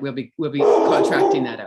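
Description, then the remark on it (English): A dog named Baxter barks loudly and excitedly in a rapid burst, overlapping a man's speech, the barking dominating the second half. “Who's that in the background? What's the name that of your dog?”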